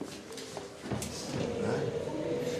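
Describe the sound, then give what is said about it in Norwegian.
An automatic door to a smoking room slides open with a click, then a steady mechanical hum and whirr, heard at moderate volume against faint background noise. “Men vi har lys, da. Automatisk åpning av døra.”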